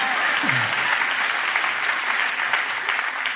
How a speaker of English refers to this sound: Oh, the applause died down by 73%.